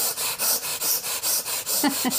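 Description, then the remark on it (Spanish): A person imitates angry, heavy breathing, the breathing of rage: a run of rapid, forceful hissing breaths through the nose and mouth, about ten in quick rhythm, fairly loud with no talking. “que es la respiración de rabia, no podrías mantener la calma.”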